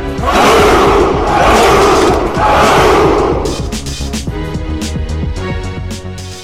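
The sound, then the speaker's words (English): A large crowd of racers at the SoCal Spartan Race roars a battle cry in three loud, rhythmic, full-throated bursts, before the shouting gives way to music. “Spartans! What is your profession?”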